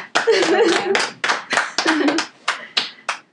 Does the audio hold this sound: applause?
yes